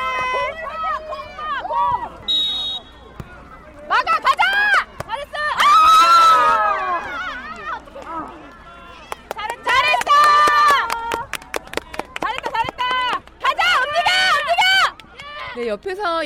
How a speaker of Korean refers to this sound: 열심히 응원하고 외치는 분들 누군지 아시겠죠? 바로 이 축구 꿈나무들의 열혈 팬인 부모님들입니다. 골을 넣거나 좋은 플레이가 나왔을 때 그리고 넘어져도 바로 일어나는 아이들의 모습을 보면서 박수와 환호, 격려가 끊이질 않습니다.